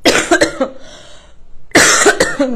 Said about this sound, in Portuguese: Ó, quem tá chegando aí, hoje tem muita tosse.